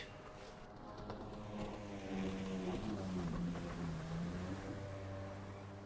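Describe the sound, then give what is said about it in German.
A jet ski engine drones steadily for several seconds, its buzzing pitch rising and dipping slightly, loud and continuous with no voices. “Für alle, die das Geräusch am Schluss nicht zuordnen konnten, das war der Sound eines Jetskis, auch wenn ich glaube, dass man damit in Fürth firm sein sollte.”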